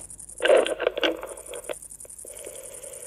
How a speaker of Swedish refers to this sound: När man blir gammal då kan man inte höra syrsorna längre. Varför då? De som låter så högt. Ja, det är just därför. Man hör inte så höga toner längre när man blir gammal. Man hör sämre. Och på bandspelaren hörs de i alla fall. Hör här så får ni höra.